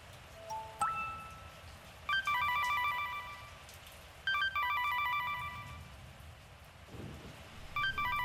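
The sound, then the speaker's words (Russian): A daughter's telephone rings during a thunderstorm in three electronic bursts with short pauses between them, clear, over a steady background hiss like rain. “Телефон дочери зазвонил снова.”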